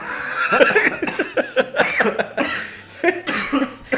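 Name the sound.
coughing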